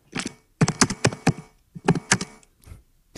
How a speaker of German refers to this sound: man hört das Tippen sehr.